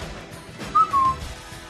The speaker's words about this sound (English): I haven't done the wangling whistle in a long time.